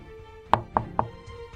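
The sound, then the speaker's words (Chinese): Three quick, evenly spaced knocks on a door that will not open, each a sharp, solid rap rising clearly above a quiet background hum, with no voices. “哎，门怎么打不开呀？”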